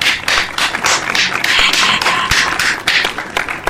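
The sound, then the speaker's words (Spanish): A group claps together, a dense, steady patter of many overlapping hand claps running continuously and fairly loud throughout, with no voices. “Y cuando hubo terminado este breve discurso, todos aplaudieron.”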